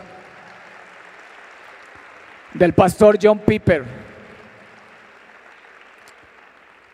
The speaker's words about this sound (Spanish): Dale un fuerte aplauso